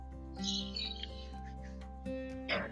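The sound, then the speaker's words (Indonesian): Birds chirp in short, bright bursts, a cluster early on and another near the end, fairly faint over a steady low background hum. “suara burung begicau.”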